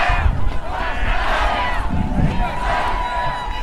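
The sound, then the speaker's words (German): A crowd of protesters crossing ankle-deep muddy fields toward Lützerath chants slogans such as "Wir sind mehr, kommt alle her" together in a steady, loud swell of many overlapping voices, with rhythmic rises and falls and scattered shouts over a rumbling low background. “Skandieren, wir sind mehr, kommt alle her.”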